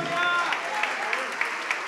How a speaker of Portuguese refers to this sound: Tá vindo mais. Vamos aplaudir mais. Tá vindo mais. Vamos aplaudir.